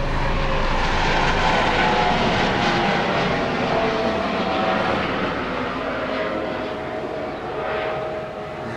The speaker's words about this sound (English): Okay. Thank you, Mr. Helicopter.